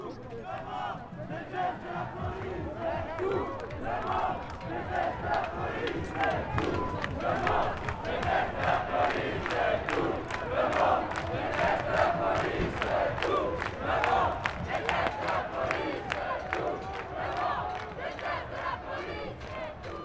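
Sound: protest march crowd chanting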